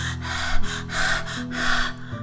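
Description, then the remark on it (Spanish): A voice imitates Doña Zorra, a fox arriving out of breath after chasing a rooster, panting: five quick, heavy breaths in a steady rhythm, fairly loud, over a faint, low sustained tone. “Unos segundos después llegó Doña Zorra, jadeando”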